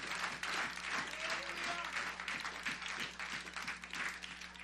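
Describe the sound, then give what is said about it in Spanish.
An audience applauds steadily in praise of Christ, dense overlapping clapping lasting several seconds, with a faint hum and scattered voices beneath the sustained applause. “Dale un aplauso a Cristo si te siente el deseo.”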